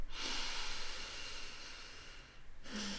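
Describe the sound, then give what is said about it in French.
A slow, deep breath, a long airy rush lasting a couple of seconds, then a short pause before the next breath begins. No one speaks. “là, je vais utiliser la force de mon mental, de mon focus pour stop, je me détache de mes pensées, puis je respire.”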